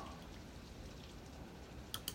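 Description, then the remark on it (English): Wind and rain picking up make a steady, soft hiss outside a house in Florida, fairly faint and constant, with two sharp drip-like taps near the end and no voices. “Uh, well, looks like the wind and the rain starting to pick up here at my house.”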